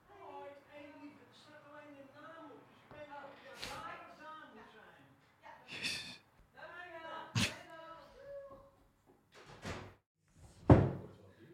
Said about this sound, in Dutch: Godsamme, dan gaat weer de bel.